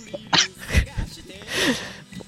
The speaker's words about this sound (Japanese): ちょっと咳き込まれてましたけど、まあ、このゲストの方、出ていただきましょう。